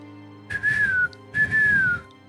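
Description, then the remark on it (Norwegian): A person whistles a bird call: two sustained, slightly wavering notes that drift downward, each about half a second long with a short gap between, clear over a soft background hiss. “Jeg vil gjerne fortelle han fyren at, eh, at, altså, han kan gå til Nordtårnet ved hovedstadens murer, eller ved byens murer, og plystre. Fugleplyster.”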